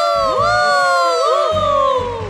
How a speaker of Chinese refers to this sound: 观众们再一次欢呼起来。